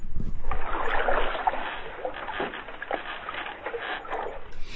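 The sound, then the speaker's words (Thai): Water sloshes and splashes steadily as a canoe is paddled, with soft rhythmic strokes and gentle lapping, a continuous watery wash with no voices. “ที่เดี๋ยวจะเปิดให้ฟังนิดนึงดีไหมอันนี้คือเป็นเสียงแบบพายเรือแคนูอะ”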